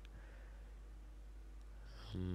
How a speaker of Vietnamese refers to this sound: không biết mọi người có đang nghe cái tiếng rè rè không cái gì nay hơi nóng ấy nên là quà có bật quạt một tí mong là mọi người à, sẽ không khó chịu nha